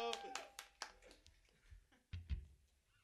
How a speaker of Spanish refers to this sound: ¡Uh! ¡Un aplauso!